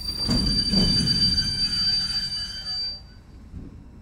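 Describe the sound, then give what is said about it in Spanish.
A train grinds to a halt at a railroad crossing, a high steady brake squeal riding over heavy low rumbling for about three seconds before cutting off, leaving a quieter clunk and hum as it settles. “Y así se detiene el tren.”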